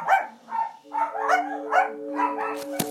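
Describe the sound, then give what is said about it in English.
A dog barks about six times in quick, steady succession, fairly loud, while a sustained musical hum comes in beneath the barks partway through. “Oh, it's the dog.”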